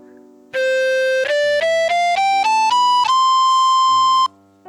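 An electronic wind instrument, an Elefue, set to its standard recorder tone, plays a rising scale of about seven clean, steady notes, ending on a longer held tone. The playing is loud and alone.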